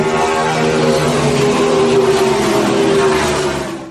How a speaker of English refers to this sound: Abrochamos el cinturón. Ponemos la primera velocidad. Pisamos el acelerador.